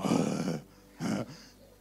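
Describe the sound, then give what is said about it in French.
A voice imitates the loud sniffing of a possessed man: one long, rough, breathy snort followed after a short pause by a second, briefer one, both noisy and forceful with a grunting low edge. “Maintenant, il reniflait, il faisait.”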